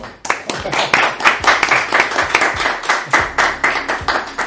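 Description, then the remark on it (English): An audience breaks into a steady round of applause thanking a priest, many hands clapping together in a loud, dense, crackling wash with a few sharper claps standing out, sustained for several seconds without any talking. “And uh, since we have an audience today, why don't we just give him a, a round of applause?”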